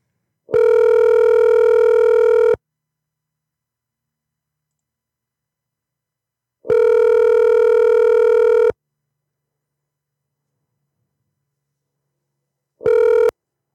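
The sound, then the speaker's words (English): A telephone ringback tone purrs in steady two-second bursts separated by long silent gaps as an outgoing call is placed, three rings in all, the last cut short. Clear, with no voices. “So these are the people I'm trying to call.”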